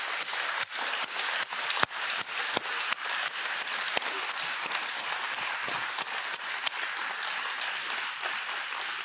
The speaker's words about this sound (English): Uh, we do this when we go to sporting events and we kind of make a big deal out of applauding. But I think it would be great for us to applaud the faithfulness and the goodness of God this morning. Would you join me?